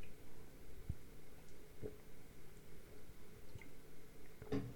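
Soft wet sounds of water being sipped or poured, a few brief liquid squishes and drips scattered over a quiet background, with no one talking.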